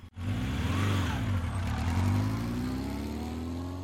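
A small motorcycle engine starts abruptly and runs with a loud, steady rumble, the pitch rising and falling slightly as it revs, with no voices.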